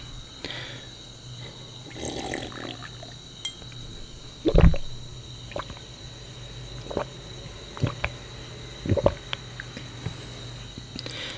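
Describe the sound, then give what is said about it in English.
Scattered drips and soft sloshing of water, with a few sharper splashy knocks spread irregularly over a low, steady background hum. “that was amazing water.”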